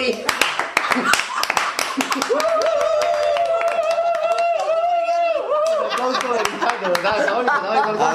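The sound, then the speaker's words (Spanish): Steady applause from a group keeps going for several seconds, with voices chattering through it and a sustained, whistle-like tone rising over the clapping midway. “Yo a esa chaval le daba un aplauso americano”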